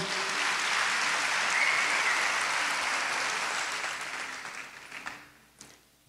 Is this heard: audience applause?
yes